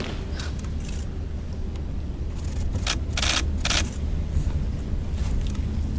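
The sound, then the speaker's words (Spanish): Footsteps of a funeral procession turning a coffin to face the door of an abbey: slow, irregular scuffing steps, a few sharper ones around the middle, over a steady low rumble, with no one speaking. “a ver, se oyen los pasos como cuando nuestros compañeros maravillosos retransmiten.”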